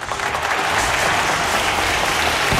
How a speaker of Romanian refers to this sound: Aplauze lor pentru curaj. Aplauze, aplauze.